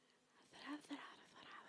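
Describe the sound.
A voice imitates a Komodo dragon's hiss: a breathy, raspy exhale lasting over a second, with two brief throaty catches near the middle, fairly quiet and alone.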